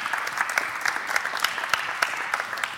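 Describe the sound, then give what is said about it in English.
An audience claps together in steady, dense applause as a round of applause for God, many hands blending into a continuous patter with occasional sharper claps standing out, sustained throughout at moderate volume with no one speaking. “Can we give God a round of applause?”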